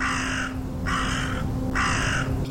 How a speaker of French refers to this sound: Huit corbeaux croassent pour saluer leur départ.